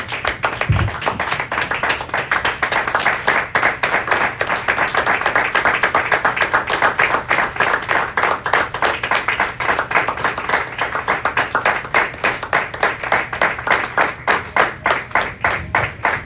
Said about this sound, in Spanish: Gracias, muchas gracias. Si le damos un aplauso al Señor Jesús, hermanos.